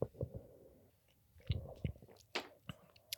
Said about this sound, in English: It was very clovey. Yeah. Like man, um, let me take another sip of this one.